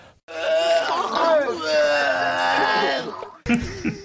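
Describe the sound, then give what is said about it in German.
A person imitates a sheep's bleat in one long, wavering, nasal cry lasting about three seconds, loud, with a brief bit of voice right after. “ist das Schaf von der äh, Nebenan-Shooter ausgebüxt”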